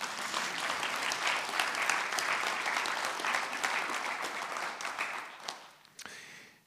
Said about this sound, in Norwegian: Kan vi ikke klappe for dem?